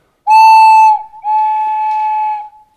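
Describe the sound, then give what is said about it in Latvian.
A traditional Latvian ceramic clay whistle blown in two steady, breathy notes, a shorter one, a brief break, then a longer one that sags slightly at the end. Loud, with no talking. “Lūk, arī vidzemē ir bijuši no svilpaunieki, man šķiet, vai visos novados, kur zemē arī gatavojas.”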